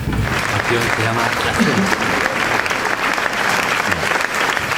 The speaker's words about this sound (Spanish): Pues venga, os voy poniendo aplausos ya directamente para que empecéis eh, como en un concierto normal. Venga.